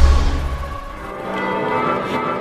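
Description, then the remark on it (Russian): Church bells ring out in Florence, Italy, with a steady, resonant metallic tone, sustained harmonics hanging in the air over a low rumble of outdoor ambience on the way to Piazza della Signoria, moderately loud. “Вот как раз колокола заработали.”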